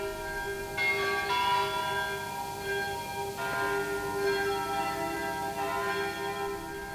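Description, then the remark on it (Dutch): A church bell rings steadily, its strikes overlapping into a sustained, resonant wash of metallic tones, with no voices present; the church bell rings again at six in the evening after six months of silence. “Wanneer de kerkklok na zes maanden gezwegen te hebben weer gaat luiden.”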